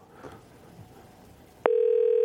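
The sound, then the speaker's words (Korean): Low, murky background noise gives way abruptly to a loud, steady telephone tone, a single unbroken hum-like pitch that holds to the end with no talking, as a phone call is placed to a listener during a broadcast. “3239님, 한번 전화 걸어보겠습니다.”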